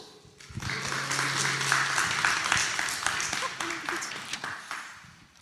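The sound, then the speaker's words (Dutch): Warm audience applause welcoming the first speaker at a presentation event, a dense, steady patter of many hands clapping for several seconds before tapering off, with a low hum and some murmuring underneath. “Geef hem een warm applaus.”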